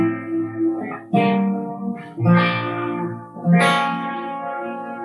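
An electric guitar plays a plagal cadence: a few sustained, ringing chords struck one after another, fairly loud, with a slightly effected tone and no voices.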